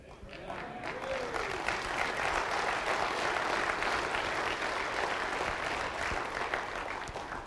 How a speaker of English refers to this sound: Now we clap, but let me pause here to give you an illustration.